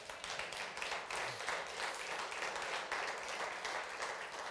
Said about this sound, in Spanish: Otro aplauso al Señor.